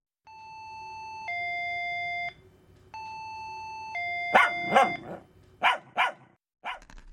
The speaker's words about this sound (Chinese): 按了半天的门铃，旁边三零一号的门开了。